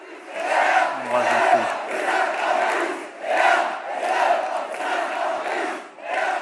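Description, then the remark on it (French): A large crowd waving flags before an empty stage at Emmanuel Macron's headquarters in Paris at night chants in unison "et 1 et 2 et 50 plus", loud rhythmic surges of many voices rising and falling in repeated phrases, with no individual speaker audible. “La foule agite ses drapeaux devant la scène vide et scande et 1 et 2 et 50 plus.”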